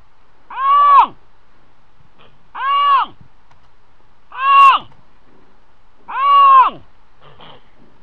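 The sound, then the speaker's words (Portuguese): Four loud Iberian lynx calls, each a drawn-out, tonal wail about a second long, repeated at a steady, even pace with quiet pauses between them. “é que muitas vezes este é o único som que as pessoas vão poder. Eh, um dia que, que se tenha aqui outra vez lince a sério a reproduzir-se, não é?”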